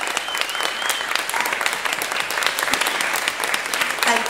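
An audience claps steadily, a dense, even patter of many hands that holds at a fairly loud level throughout, with no voices rising above it.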